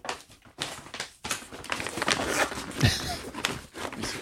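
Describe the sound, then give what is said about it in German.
A plastic bag found inside a package being unboxed crinkles and rustles in irregular bursts, with soft handling noises and a faint low thump partway through. “Oh, hier eine Tüte ist hier drin.”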